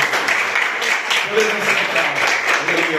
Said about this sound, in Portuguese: E as palmas que adorem ao Senhor Jesus. Glória.